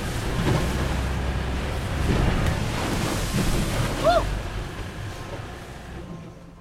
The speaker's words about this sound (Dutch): En dan eh, gaat het zo slalommend tussen de, de golven door naar het, eh, naar het andere schip. dat is eh, tamelijk spectaculair, kan ik je dus zeggen.